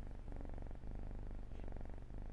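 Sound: kitten purring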